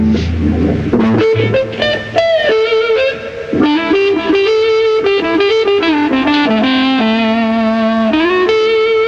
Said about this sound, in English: Another characteristic of your particular playing is a kind of whining noise, usually described as woman tone.